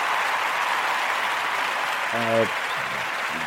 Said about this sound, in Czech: Ano, já si k tomu rád zatleskám.